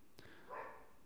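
A single short, faint dog bark, preceded by a brief click, with no one speaking.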